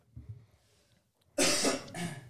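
human body sound, coughing

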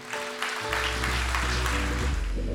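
crowd, audience applauding

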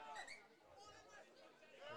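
crowd, background chatter

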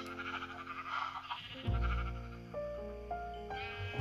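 animal, sheep bleating

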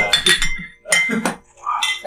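household object, glasses clinking

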